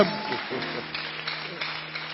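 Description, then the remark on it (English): An audience claps in a dense, steady patter that runs for a couple of seconds, with voices mixed into the noise of the crowd. “Come, come, oh, clap, clap, oh. clap.”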